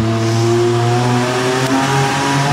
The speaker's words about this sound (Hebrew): כן איזשהו ג'יפ שעבר.